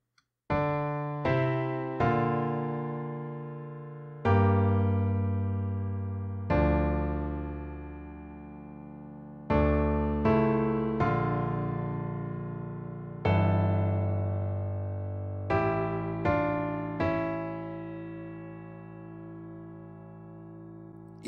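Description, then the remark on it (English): Slow, emotional string orchestra music with no brass: rich sustained chords swell and shift every few seconds, each change entering with a firm attack before ringing out, the bass line moving in the opposite direction to the melody, with no voices. “Again, there's no brass in it or anything like that. It's just strings, very emotional.”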